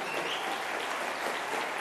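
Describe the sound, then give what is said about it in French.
An audience at a French campaign event applauds the person who made the campaign's L'avenir en commun website, a dense, even wash of clapping that holds at the same moderate loudness throughout without any voices. “Et vous pouvez appeler, on peut l'applaudir.”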